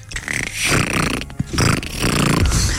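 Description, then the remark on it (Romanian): A person's voice imitates a young dolphin with loud, raspy, snort-like squeals, delivered in three or four continuous bursts separated by brief gaps, with no other talking. “Asta e delfinașul, că am făcut și...”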